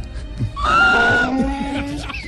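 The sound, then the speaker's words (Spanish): A voice imitates a donkey's bray: a loud, strained high-pitched note that drops into lower, rougher honking tones, lasting about a second before trailing off. “Un asno rebuznaba.”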